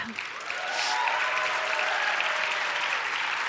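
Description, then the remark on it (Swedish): A church audience breaks into applause for the young people under 20 who have stood up, a dense, steady wash of clapping that swells within the first half-second and holds at an even, fairly loud level throughout, with no talking over it. “Ge dem en applåd.”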